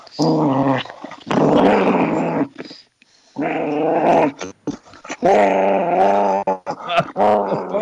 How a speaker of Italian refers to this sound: Se volete, vi faccio sentire un po' come ringhia un animale incazzato.